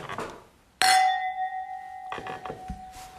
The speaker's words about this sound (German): Dann lass uns mal anstoßen.